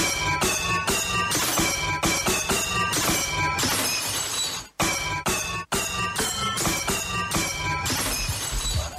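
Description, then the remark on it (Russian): A chandelier smashing, with loud, dense bursts of shattering glass and bright tinkling shards that continue almost nonstop, pausing only briefly midway before the crashing resumes. “Разбитая люстра.”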